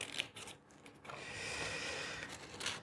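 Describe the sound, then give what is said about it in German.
Quiet scissors cutting the inside out of a paper piece for a children's craft: a short crisp snip, then a longer rustling cut lasting a second or so, ending in another snip. No one speaks. “noch einen Schnitt. Okay, jetzt habe ich das Innere schon mal raus.”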